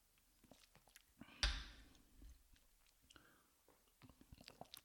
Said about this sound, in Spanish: Ah, qué silencio, qué silencio, eh, perdón. Fíjate que es muy complicado tomar tequila mientras estás grabando porque como que toma más tiempo.